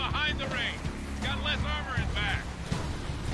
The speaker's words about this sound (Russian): А, там этот мотоцикл.